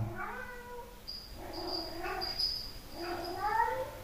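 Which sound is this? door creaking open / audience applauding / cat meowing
cat meowing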